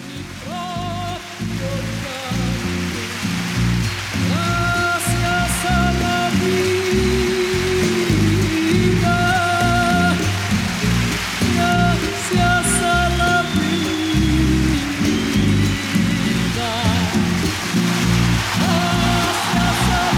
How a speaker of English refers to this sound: And in that moment, you hear the audience, you know, getting really excited, yeah, right? Yeah.